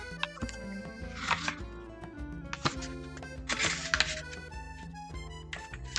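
Several quick papery rustles as the pages of a book of love poems are flipped, in short bursts a second or so apart, over a steady bed of soft instrumental music.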